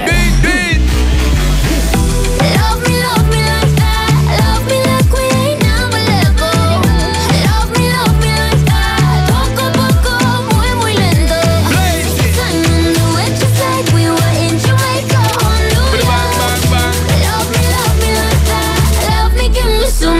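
A pop dancehall track plays loud and steady throughout, with a thumping bass beat, layered melodic lines and sung vocals riding on top, close and continuous with no pauses.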